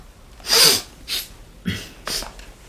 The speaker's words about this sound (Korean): 이 소리는 비염을 달고 사는 오빠의 코 먹는 소리고.